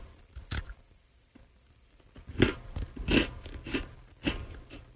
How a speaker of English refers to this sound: It's a very crunchy cookie, by the way.